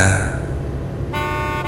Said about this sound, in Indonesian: terdengar suara klakson mobil. Iya. Mobil minibus di belakangku itu mengklaksonku. Terus-menerus. Dan memberi memberi lampu dim padaku. sampai berkali-kali.